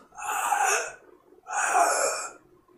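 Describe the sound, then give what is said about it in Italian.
A voice imitates a creature's hiss, as if it opens its mouth and only a hiss comes out: two breathy, drawn-out exhalations, each about a second long, separated by a short pause, with no talking. “Vedi che apre la bocca ed esce semplicemente un sibilico.”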